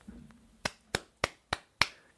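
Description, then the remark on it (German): Five sharp hand claps in a steady, fairly quick rhythm, each crisp with a short decay, following a faint low murmur at the start; the clapping of the former Dallas Cowboys head coach, nicknamed 'the Clapper', now in charge of an American football offense. “Genau, der Klatscher.”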